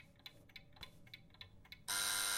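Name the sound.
alarm clock ringing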